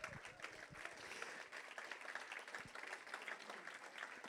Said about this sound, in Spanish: Aleluya. Aplaude el Señor.